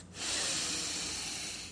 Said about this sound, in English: The Rav took a deep breath.